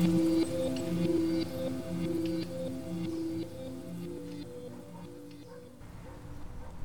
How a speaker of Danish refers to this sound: Og nu har vi altså lige fundet noget læ her i et øh, udkigstårn ud over Gudnåen. Og det, man kan høre i baggrunden, det er et, øh, et godstog, der langsomt futter forbi, har lyst til at, at kalde det.